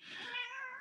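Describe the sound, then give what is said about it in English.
A pet cat gives a single drawn-out meow, fairly loud, with a wavering, slightly rising-then-falling pitch lasting just under a second, with no talking over it. “i'm sorry my cat is crying i'm quite sure you can hear that”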